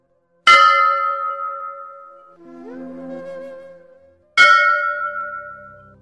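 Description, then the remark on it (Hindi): Two loud, resonant strikes of a temple bell rung during aarti, several seconds apart, each ringing out with a long shimmering decay, and a softer tonal hum lingering between them. “मंदिर में आरती का घंटा बज रहा था दस पांच भक्तजन खड़े स्तुति कर रहे थे”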